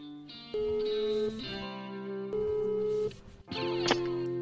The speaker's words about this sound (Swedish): Så nu ringer vi upp